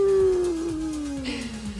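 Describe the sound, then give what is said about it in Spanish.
A person's voice imitates a wolf howl, a single sustained tone that slowly glides downward in pitch, fairly loud, with faint background noise. “Donde yo tenía que salir y me encontraba el lobo.”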